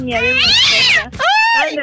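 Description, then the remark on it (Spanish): A person imitates a cat, giving two drawn-out, loud meows, the first long and wavering, the second shorter and rising, with a brief pause between them. “Miau, con el gato.”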